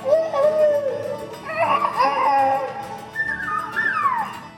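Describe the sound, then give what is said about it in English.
A human voice imitating a rooster crowing, as in the rooster crowing contest at the Wausau Possum Festival in Florida: several strained, warbling calls that rise and fall in pitch, fairly loud, ending with a higher sliding cry. “Rooster crowing.”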